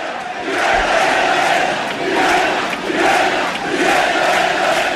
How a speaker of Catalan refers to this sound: Aquest castell no no el descarregaran, el defensen a capa i espasa i fan això. A veure, a veure, els crits de Vella i Vella, va!